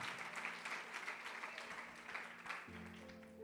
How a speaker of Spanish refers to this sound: Vamos a darle su mejor aplauso al Señor.